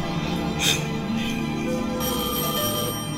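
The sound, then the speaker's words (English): A telephone rings with a steady, bright electronic bell tone and sustained high overtones, at fairly constant loudness with a brief louder burst early on. “Answer the phone.”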